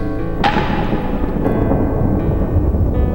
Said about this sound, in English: Storms moving across the bay. Lightning filling up banks of black clouds.